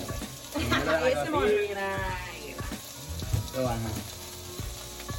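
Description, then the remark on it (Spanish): Carrot frying in a pan, a steady sizzle and crackle running throughout, with a person's voice and a laugh-like vocal sound rising over the sizzling. “O sea, el olor que está saliendo de esta zanahoria es otra”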